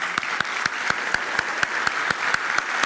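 A round of applause, dense steady clapping filling the whole stretch with sharper rhythmic claps standing out at a regular beat, fairly loud and sustained, with no one speaking over it.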